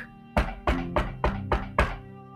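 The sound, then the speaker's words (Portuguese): Six firm knocks on a door in a quick, steady rhythm, each a solid thud. A low, sustained musical tone hums underneath, and no one speaks. “Isso mesmo, quando alguém bate a porta de alguém.”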